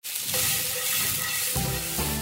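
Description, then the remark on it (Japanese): Steady, crackling sizzle of food frying in a hot pan on a high-power Panasonic IH cooking heater, with a couple of louder whooshing shakes as the pan is tossed near the end; fairly loud, no voices. “パナソニックの IH クッキングヒーターなら高火力だし鍋振りもできるもんねうんいい焼き色”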